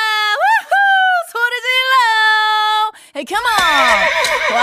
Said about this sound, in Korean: 얼룩말이 우네요. 땡큐, 홀스.